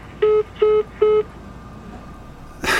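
Three short, evenly spaced electronic beeps of a phone calling tone, clear and steady against a quiet background, followed by a brief burst of rustling noise at the end.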